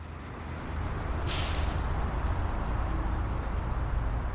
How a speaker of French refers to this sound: Je prends le bus pour rentrer chez moi, je pose ma tête contre la vitre et je regarde défiler la ville.